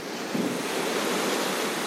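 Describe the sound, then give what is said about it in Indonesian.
Steady wash of ocean surf rolling onto a shore, a broad continuous roar with a slight swell partway through, even in loudness, with no voices. “Mungkin kehidupan lo saat ini terasa setenang ombak-ombak yang gue lihat sekarang.”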